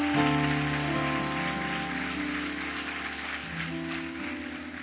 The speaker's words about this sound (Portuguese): Pode aplaudir a ele bem forte?